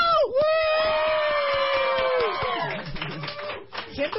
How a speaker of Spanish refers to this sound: Están aplaudiendo igual por todos.